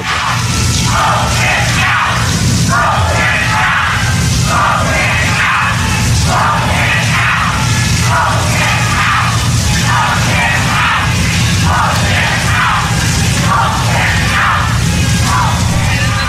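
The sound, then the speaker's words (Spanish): A large crowd chants "vote him out" over and over at Donald Trump in a steady rhythm, about a dozen loud, roaring repetitions with a continuous low crowd rumble underneath. “la gente gritaba eso”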